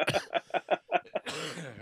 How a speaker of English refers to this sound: coughing away.